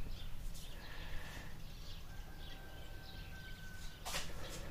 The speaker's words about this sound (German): Da, wieder die Vögel und der Wind.